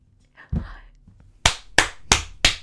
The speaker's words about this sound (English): that's me clapping for the line, the O line, and UCF in general.